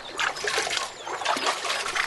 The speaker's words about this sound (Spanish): Y empezaron a tirar el agua y secaron el manantial.